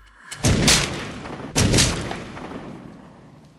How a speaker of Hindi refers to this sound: और मैंने हार मानते हुए अपनी रुआसी आंखें बंद कर ली कि तभी मुझे सुनाई दी दो गन शॉट्स की आवाज